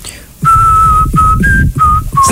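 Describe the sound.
A short whistled tune with a few sustained notes, one stepping slightly higher, broken by brief pauses, fairly loud over a low background rumble.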